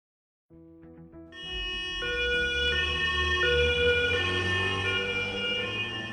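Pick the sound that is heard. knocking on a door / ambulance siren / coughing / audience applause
ambulance siren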